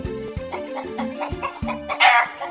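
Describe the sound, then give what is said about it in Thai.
A chicken clucks repeatedly in short, rhythmic bursts, close by and fairly loud, ending in a sharper, squawkier call. No one speaks. “ลุงดูนี่สิจ๊ะ ดูหน้าของไก่จ้อยสิ ไก่จ้อยอ่ะโดนไก่ไอ้แดงตีจนเลือดเต็มไปหมดแล้วเนี่ย”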